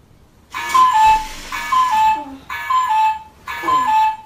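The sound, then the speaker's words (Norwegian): An electronic target-shooting alarm clock goes off with a bright, buzzy tone pattern repeating four times, about once per second, loud with no one speaking; its snooze function sets it off again every five minutes. “I tillegg så er det en snusfunksjon som jeg ikke har klart å skru av. Så den uh, går opp hvert femte minutt.”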